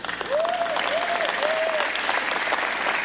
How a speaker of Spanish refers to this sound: Amén. Denle un aplauso.